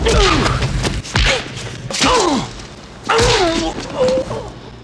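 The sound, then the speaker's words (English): A series of five heavy, exaggerated movie punch sound effects from the film Raiders of the Lost Ark, by sound designer Ben Burtt, land about once a second, each a loud, meaty thwack with a whooshing swing, mixed with pained grunts and groans. “Yes, we'd all heard movie punches up to this point, but when Raiders came out, those punches were so painful sounding, so over the top, so hyper real.”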